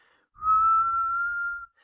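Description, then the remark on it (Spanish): Someone imitates a whistle, whistling one steady, sustained tone at a constant pitch for over a second. It is clear, with faint breathy noise underneath and no talking. “Em, y entonces empezamos a escuchar como un silbido así.”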